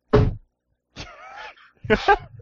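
A big, heavy paper bag lands in a drawer with one dull thud, followed by brief squeaky, rustling handling sounds and a second muffled bump.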